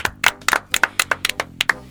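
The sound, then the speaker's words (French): An audience claps briskly, with sharp, distinct hand claps in a quick, slightly uneven rhythm that sounds like a small crowd. No one speaks. “On l'applaudit bien fort”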